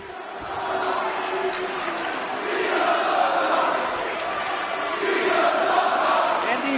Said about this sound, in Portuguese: ECW fans still unrelenting in their verbal attacks of the WWE Champion John Cena. Doesn't matter. Cena's looking great. It's not affecting Cena anymore.